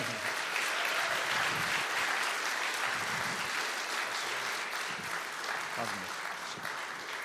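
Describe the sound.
A church audience at First Assembly applauds warmly to welcome a guest speaker, steady dense clapping for several seconds, with a few voices murmuring and calling out beneath it.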